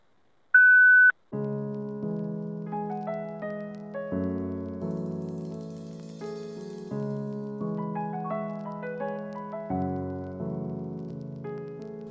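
A single steady, fairly high electronic voicemail beep tone sounds for about half a second, then cuts off and gives way to a continuous stretch of mellow instrumental music with sustained chords.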